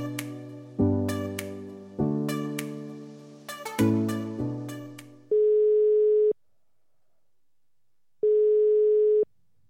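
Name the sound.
telephone ringing tone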